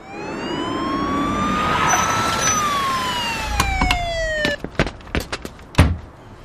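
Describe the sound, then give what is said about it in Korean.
A police car siren wails up and then slides down in pitch, loud, as the police car arrives at an apartment building over a noise complaint, and as it fades, a string of sharp clicks and thumps follows. “경비가 어떻게 해야 하나 망설이는데 경찰차가 도착했다.”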